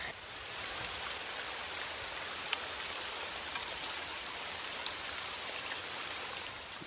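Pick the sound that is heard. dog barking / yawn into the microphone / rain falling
rain falling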